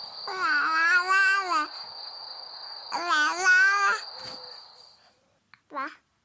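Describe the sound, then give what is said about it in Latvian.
A one-year-old baby girl babbles in a studio in two long, drawn-out vocal stretches, then a short squeal after a pause, with a faint steady high-pitched whine running in the background. “Mums ir viengadniece studijā.”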